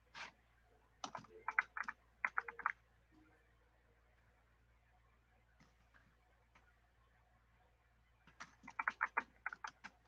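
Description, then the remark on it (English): Crisp computer keyboard typing in quick bursts of clicking keystrokes, a flurry at the start, a long quiet pause with a few stray taps, then another rapid run near the end. “Can you uh type it?”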